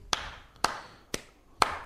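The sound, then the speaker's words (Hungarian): Four sharp hand claps land at an even, steady pace of about two per second, clapping out a four-four time rhythm. There is no talking, and each clap rings briefly before the next. “Ugye ezt tapsol.”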